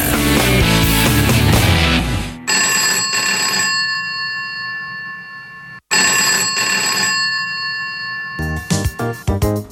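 A telephone rings loudly in two long bursts separated by a brief pause, following a short blast of busy music, with no one speaking, before it is answered at a counselling clinic.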